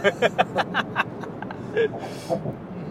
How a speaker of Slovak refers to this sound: Ja sa len uvedomujem, že to je veľká hlučnosť. Že ideš 84 km za hodinu a Ale, je pozri... to taký riadny šum.